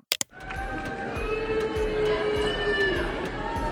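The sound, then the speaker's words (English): After two sharp knocks at the start, a live audience at a recent Colleen Ballinger (Miranda Sings) tour show roars steadily, and a long, drawn-out boo from one audience member holds above the crowd noise for several seconds. “Someone is booing.”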